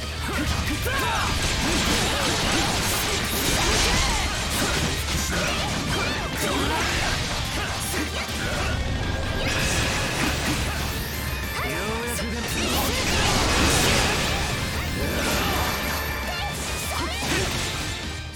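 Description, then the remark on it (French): A loud, busy Falcom video game battle: repeated crashing hits, whacks and swooshes pile up nonstop over dense, continuous electric guitar music for the whole stretch, with no clear talking. “Donc là, en fait, ce que, ce que je voulais vous montrer, surtout avant la musique, c'est l'ambiance qui se dégage de ces combats, quoi.”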